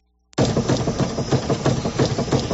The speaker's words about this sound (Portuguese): Mas que barulheira é essa nesse carro? É, é a suspensão que tá muito ruim.